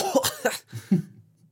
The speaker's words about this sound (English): Uh, um, what just? Uh, you okay? You suddenly you coughed up a frog.